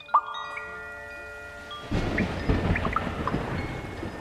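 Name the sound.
thunderstorm with rain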